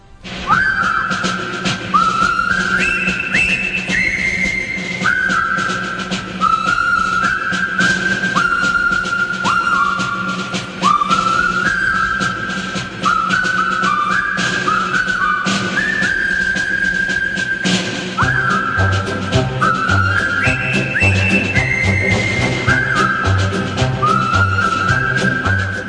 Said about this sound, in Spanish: ¿Cómo se silba? ¿Cómo se canta? ¿Qué se tararea cuando hay que marchar sobre el río Kwai y estamos en el año 57? Es muy fácil.